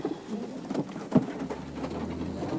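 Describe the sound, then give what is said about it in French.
Several pigeons coo softly and continuously, their low burbling calls overlapping, with a brief sharp knock or flutter partway through and a faint pattering background. “Comment vous faites quand vous tirez Vous risquez d'atteindre vos propres pigeons.”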